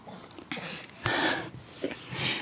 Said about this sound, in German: aber unsere Zuhörer können das nicht sehen, was du hier für fette Kaugummiblasen machst. Hm, aber die hören dich schmatzen.